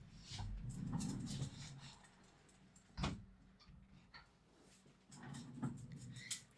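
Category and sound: household object, window being closed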